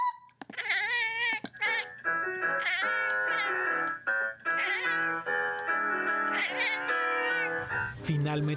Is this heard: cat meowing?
yes